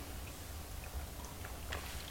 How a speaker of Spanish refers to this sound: Y ahora, ahora sí llegó el momento del cafecito, sí, de ese sorbito que hoy tiene un sabor a literatura, a libros, a autores. Así que me lo voy a dar rápidamente